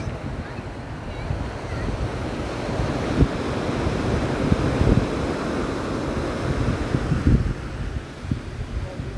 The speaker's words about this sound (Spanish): Voy a dejarles un poquito el sonido abierto para que escuchen las olas del mar. Estamos en la playa. Es un ruido alucinante las olas del mar, alucinante.